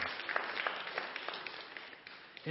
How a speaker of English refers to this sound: And we, we receive that gift from your hands, and we simply, the, uh, the, we give you hand claps of praise. We rejoice and celebrate that you would so um, do that.